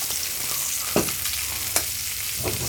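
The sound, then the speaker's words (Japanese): Steady sizzling of turned-over mackerel frying in olive oil in a frying pan, with a tablespoon of olive oil added, a dense crackling hiss throughout with a few sharper pops and spatters, fairly loud, no voices. “サバを裏返したら、あの、オリーブオイルを大さじ1足します。追加で。”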